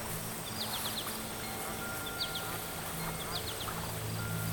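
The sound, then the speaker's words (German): Several bursts of duck quacking come in quick clusters from the reeds at the edge of a lake, over a steady background of outdoor ambience with faint bird chirps and a low hum. “aus dem Schilf, hört er etwas. Es Quaken. Es ist aber nicht das Quaken, wie er es von seinen Froschfreundinnen und Froschfreunden kennt, sondern ein, ein Läuters und Breiters.”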